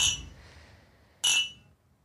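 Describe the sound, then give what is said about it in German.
Two bright glass clinks ring out in a toast at Salon Harry on Davidstraße, one at the start and another about a second later, each leaving a short shimmering decay. No one speaks. “Und erstmal Prost. Ja, Prost. Prost.”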